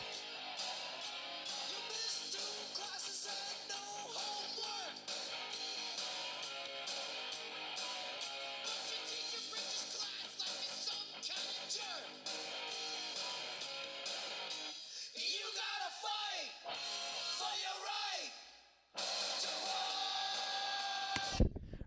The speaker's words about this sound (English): Uh, this. Do you hear any mumbling there? There's anger there. This is punk.